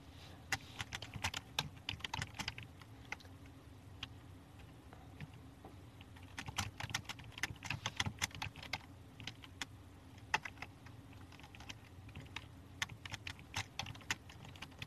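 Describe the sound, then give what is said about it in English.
Rapid, irregular clatter of keys on a computer keyboard as someone types to bring up a Bible passage from Luke, fairly quiet, with bursts of quick taps and brief pauses over a low background hum. “let me see if I can get it up here typing.”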